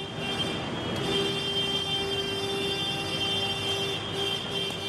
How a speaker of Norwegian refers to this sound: For det er dette vi forbinder med franske bønder. Ut i gatene med traktorer. Hovedveier sperres.